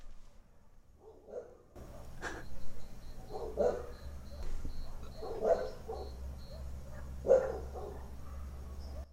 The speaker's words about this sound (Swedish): Då kanske man hör hundarna och syrsorna här ute. Om vi sitter helt tysta nu.